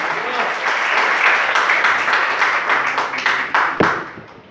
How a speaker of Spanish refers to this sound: Denle el aplauso al Señor, por favor, esta mañana.